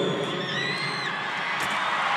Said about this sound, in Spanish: Les pedía un fuerte aplauso